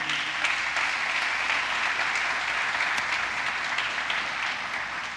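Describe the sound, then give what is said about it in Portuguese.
An audience applauds, a steady, dense wash of many hands clapping that holds at an even level for about five seconds with no voices rising above it. “Dá um aplauso aí.”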